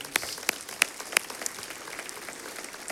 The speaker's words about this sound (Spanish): Le enviamos un aplauso a nuestro hermano Wayne desde aquí.